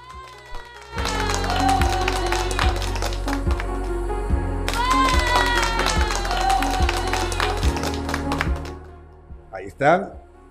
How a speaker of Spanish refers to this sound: te ganaste los aplausos de la noche.